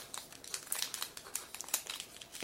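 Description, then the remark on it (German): Dry crinkling and rustling of paper and cardboard packaging as a cardboard cover and paperwork are unpacked from the box of a device with a display, a dense run of irregular crackles and soft scrapes with no voices. “Dann kommt nochmal eine Pappabdeckung und dann kommt wieder einiges an Papierkram.”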